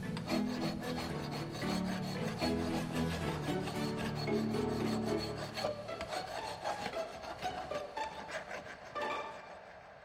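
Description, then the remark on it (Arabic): A metal file rasps back and forth against prison cell bars, cutting through them, in steady, repeated strokes, fairly loud, continuing for several seconds with no voices. “من جيب سري في عباءته أخرج جحا مبردا معدنيا وبدأ يقص به قضبان الزنزانة استغرقه الأمر وقتا طويلا جدا فلم ينتهي من عمله إلا مع فجر اليوم التالي”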